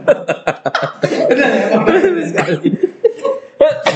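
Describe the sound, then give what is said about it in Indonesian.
A burst of coughing, several sharp hacks at the start, running into a longer stretch of coughing mixed with chuckling before a few more coughs at the end. “ada ya, sampai batuk saya sampai batuk sih”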